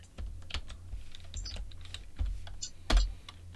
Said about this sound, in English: Oh, damn it. I'm going to type it all again.